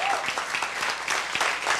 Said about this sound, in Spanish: Un aplauso